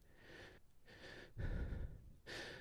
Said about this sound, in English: She slowly exhaled, but continued with short, quiet breaths.